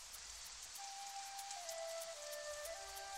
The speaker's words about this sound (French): Un matin, la pluie tombait sur le village de Moko.